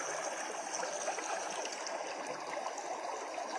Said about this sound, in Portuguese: Respire fundo. Desfrute desse córrego.